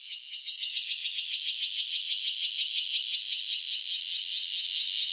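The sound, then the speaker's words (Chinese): A Takasago bear cicada sings alone: a loud, harsh, high-pitched raspy buzz that throbs in rapid regular pulses, several per second, holding steady for the whole stretch. “这个是高沙。”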